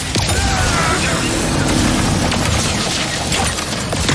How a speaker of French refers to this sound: The Shatter Bomb is a frag type grenade that deals a lot of damage to your foes. With haptic feedback, each oh. explosion feels incredibly impactful.